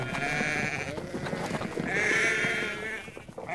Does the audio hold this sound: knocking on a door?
no